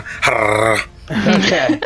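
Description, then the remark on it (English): A person imitates an angry chihuahua with two short bursts of high, strained growling and yapping, separated by a brief pause. “angry Chihuahua noises.”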